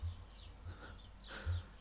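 Faint birds chirp in the background in South Tyrol, a few short high calls scattered over a quiet outdoor background with a soft low hum, and no one speaking.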